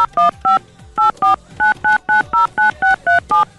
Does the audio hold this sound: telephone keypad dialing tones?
yes